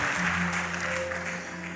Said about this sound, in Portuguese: Palmas para Jesus pelo nosso pastorzão.